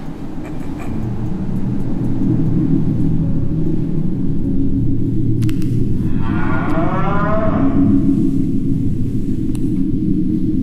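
cow mooing

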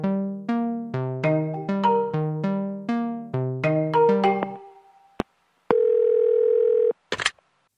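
telephone dial tone

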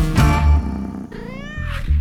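cat meowing

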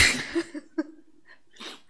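a person sneezing

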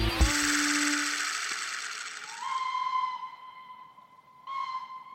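steam locomotive whistle

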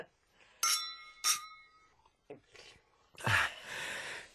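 glasses clinking

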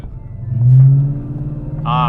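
car engine revving loudly

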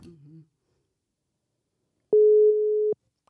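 telephone ringing tones

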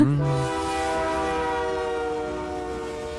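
train passing on rails

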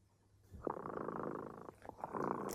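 cat purring

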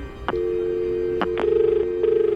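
telephone ringback tone

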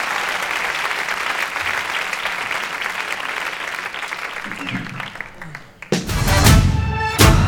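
concert audience applauding

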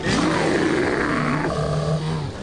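brown bear roaring

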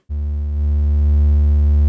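synthesizer triangle wave tone

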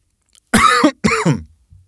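coughing and throat clearing

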